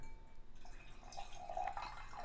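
Water is poured into a glass for a couple of seconds, a soft gurgling trickle whose pitch climbs slightly as the glass fills. It is fairly quiet, with no talking.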